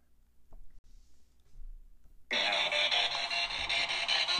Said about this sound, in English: That is the white noise. Now it is scanning radio frequency, so that's why you do it.